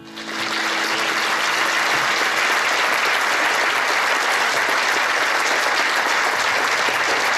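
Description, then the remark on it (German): Sustained audience applause after a lecture by Professor Dr. Hildegund Sünderhauf in Cologne in 2014, a dense, steady wash of many hands clapping that rises quickly and holds at an even, loud level throughout, with no voices standing out. “Diesen Applaus bekam Professor Dr. Hildegund Sünderhauf 2014 nach einem Vortrag in Köln.”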